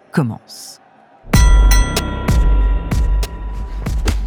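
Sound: boxing ring bell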